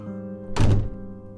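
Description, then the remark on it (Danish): A door slams shut once, a loud, heavy thud with a brief rumbling decay, over a steady low hum. No one speaks. “Han bliver irriteret og kommer til at smække med døren.”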